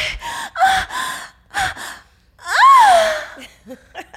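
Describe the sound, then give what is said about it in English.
A woman performs a faked orgasm: a run of short, breathy gasps and moans rising into a long, loud wavering cry, then trailing off into a few softer sighs. “Can I hear your faked orgasm?”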